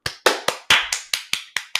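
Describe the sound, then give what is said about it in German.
Hand clapping: about nine sharp, bright claps in a steady, quick rhythm, each one loud and crisp with a short decay, and no voices. “Einen Applaus.”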